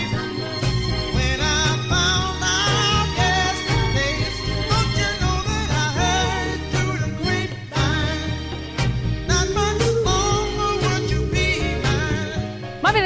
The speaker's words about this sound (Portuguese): A gente vai ouvir um swinguinho, uma vozinha gostosa, aquela coisa veludada lá no fundo.